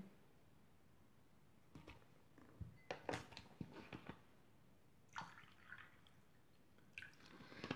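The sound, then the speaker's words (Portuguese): Faint, intermittent splashes of water being poured into glasses as people serve themselves water for a water fluidification rite, with small clinks and trickles coming in short bursts and quiet pauses between them; no one speaks. “Podem alcançar o vosso copo com água e servir quem ainda não tiver servido.”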